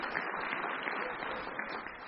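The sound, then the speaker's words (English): A church audience applauds their pastor, many hands clapping in a dense, even wash of sound that holds at a constant loudness throughout. “I know we're not going to clap all day, I promise.”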